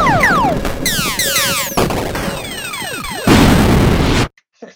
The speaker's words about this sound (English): All right, the explosion. That's right.